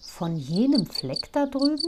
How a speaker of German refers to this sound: das ist die Grille, deren Zirpen man weithin hören kann.